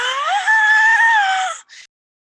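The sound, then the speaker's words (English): A person voices a loud, drawn-out wailing scream, imitating a beast's roaring cry. It holds steady for over a second, then breaks off with a brief, strained gasp. “It kind of looks up, and when it sees all four of you, screams, but it's like a roar and a scream at the same time. It's this unearthly wail that also is the cry of a beast, just like.”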